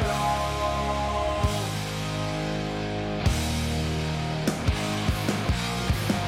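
A rock song plays loudly with full band sound: sustained distorted guitar chords and sharp drum hits that grow more frequent and regular toward the end. No one talks over it.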